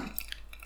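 A beer bottle being opened: a few brief, crisp metallic ticks followed by a sudden burst of airy hiss at the very end, heard alone with no talking.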